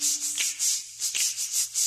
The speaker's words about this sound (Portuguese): Quando você acordar e o relógio avisar que já tá na hora de você estudar, escove os dentes. Escove assim.